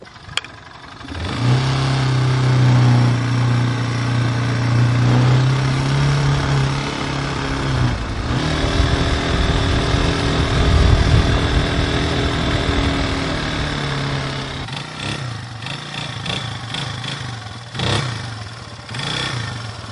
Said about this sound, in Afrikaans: Wys gou vir my as jy nou die motorfiets aanskakel, hoe moet jy dit doen? Ek sit hom daar in en trek ek hom daar.